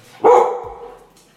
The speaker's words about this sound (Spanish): Ese fue mi perro, amiguito. Lo voy a meter a mi cuarto. Los odia.